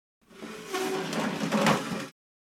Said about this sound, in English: Stupid chair broke. Let's get you up. I'll go drag the chair out of the office.